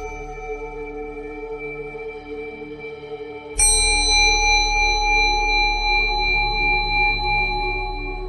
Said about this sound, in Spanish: Cuando escuches la campana, vas a abrir los ojos lentamente.